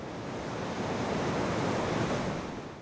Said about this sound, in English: He's watching the Truckee River rush over Numana Dam, an irrigation diversion.